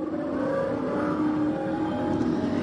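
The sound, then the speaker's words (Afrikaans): Loud, continuous prehistoric Ice Age animal sounds from an exhibition: a deep, rumbling, growling drone with layered low tones that wavers slightly but never stops, with no talking. “Dit klink dalk vir jou soos klanke uit Noag se ark.”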